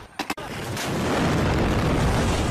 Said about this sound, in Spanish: Dos de las explosiones se produjeron dentro de la terminal y otra frente a la principal puerta de acceso al edificio.